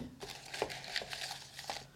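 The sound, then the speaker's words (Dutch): Quiet paper rustling and crinkling in several short bursts as a small slip of paper is drawn and unfolded, with no voices. “Oké, okay, ik ga nog eens een papiertje trekken.”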